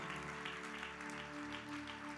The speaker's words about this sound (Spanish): De ese aplauso de alabanza al Señor. Aleluya.